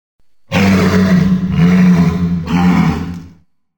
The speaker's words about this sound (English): So, what's that sound? A walrus. A walrus. Walruses are known for their giant tusks.